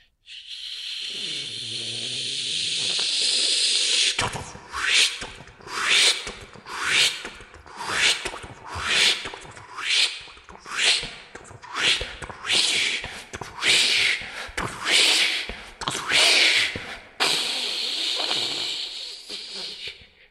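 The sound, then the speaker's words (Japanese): A voice, performed while wearing a mask, imitates a tsukutsukuboshi cicada call: a steady hissing buzz, then a run of about a dozen rhythmic rising chirps, ending in another sustained hiss. “うんまあ人間のできる限界のつくつく奉仕まではちょっとできたと思うから。”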